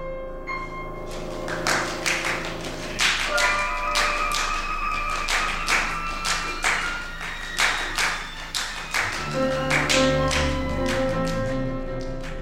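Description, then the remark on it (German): Sharp hand claps, used as an extended playing technique in a music performance, strike in a steady, irregular series over sustained, droning instrumental tones, each crack fairly loud, with no talking. “Dazu zählen das Clapping und Rubbing, also mit den Händen klatschen und schleifen.”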